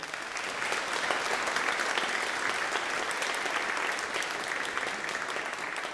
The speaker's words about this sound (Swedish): Kan vi ge en extra applåd för dem?